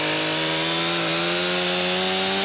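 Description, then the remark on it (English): A chainsaw run by crews cuts an ice fishing hole in the ice of Westchester Lagoon, making a loud, steady buzzing whine whose pitch creeps slightly upward over a couple of seconds. No voices accompany it. “He says right now crews are clearing roughly 24 inches of snow off the lagoon and cutting an ice fishing hole so they can create a thicker layer of ice.”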